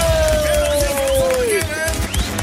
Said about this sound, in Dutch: En dit applaus is voor jou!